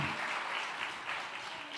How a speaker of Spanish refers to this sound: Vamos, a denle un aplauso fuerte al Señor. Pueden tomar asiento.